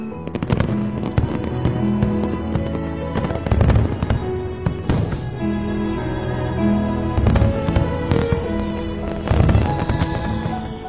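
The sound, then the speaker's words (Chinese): Fireworks burst again and again at an irregular pace, lighting up the sky for the new year, loud booms and sharp crackling pops rising over a steady melodic backdrop that continues underneath throughout. “烟花把天空都照亮了。”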